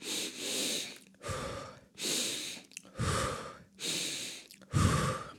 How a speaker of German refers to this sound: Also wirklich eine, eine zügige, tiefe Ein-Ausatmung. Mhm. Äh, nicht empfohlen, das ständig zu machen.